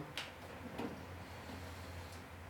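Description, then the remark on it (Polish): A CD player's disc tray slides open after its eject button is pressed, with a low, steady motor hum and a few soft mechanical clicks, quiet, with no voices. The tray has two recesses, one for a normal-size disc and a smaller one for a single. “Otworzyła się szuflada, kładę płytę.”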